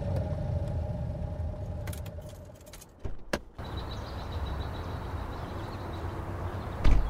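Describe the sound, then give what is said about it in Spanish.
A car rumbles steadily as it arrives in Andorra, then a few sharp clicks and a brief jangle cut in midway, like keys or a door handle, before the low engine hum settles again. No one speaks. “Casi dos años después de los crímenes llego en coche a Andorra, donde he quedado con los miembros de la Asociación Amigos de Iranzo.”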